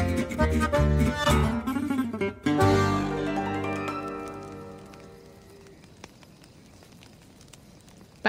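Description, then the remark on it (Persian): Sustained musical tones ring out and slowly fade, leaving a soft bed of campfire crackling at a camp, with scattered, irregular pops and snaps at a quiet level. “بساط کمپ که به پا میشه و دور آتیش که میشینیم”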